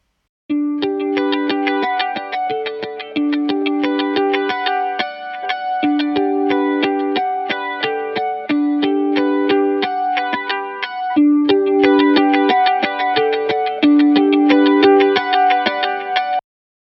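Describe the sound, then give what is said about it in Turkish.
A recorded electric guitar with a stereo delay effect plays a steady melodic line, each note repeating and smearing into the next, with a bright, effected tone throughout and different sounds reaching each ear. No voices. “İlk örnekte stereo delay efekti verilerek kaydedilmiş bir gitar vardı.”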